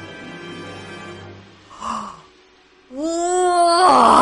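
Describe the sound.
A person's voice imitates a giant walrus letting out a huge yawn, opening its mouth so wide its jaw seems about to break: a long, low groaning drone, a short breathy gasp, then a loud, strained moan that rises in pitch and swells.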